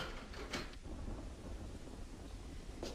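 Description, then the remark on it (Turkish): Spring rain starting to fall, steady, a continuous soft hiss over a low rumble, with a couple of brief louder splashes or bumps. No one speaks. “Yağmur başlamış. Şemsiye al. Bahar yağmuru bu.”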